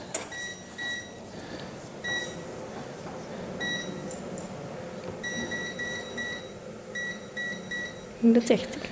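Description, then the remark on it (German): A series of short electronic beeps from an oven control panel, some single and some in quick clusters, repeating as the oven is switched up to 160 degrees, with a faint voice and background hum underneath. “Kannst du mir das einmal hochschalten ja, auf 160 Grad, wie du gesagt hast?”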